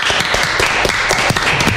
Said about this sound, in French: Et puis, euh, applaudissements nourris aussi pour ce cher